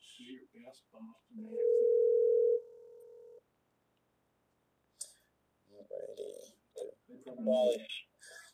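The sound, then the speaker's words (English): A phone call to Massachusetts connecting: a few quick clicks, then a steady, mid-pitched ring tone lasting a couple of seconds, a pause of silence, and then a person begins talking. “…, calling Massachusetts.”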